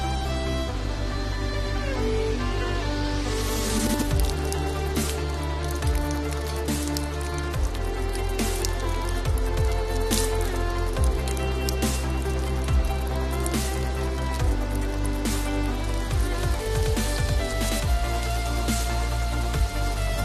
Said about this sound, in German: Drüben in Österreich, in Golling. Tja, da hat sich Regen angekündigt.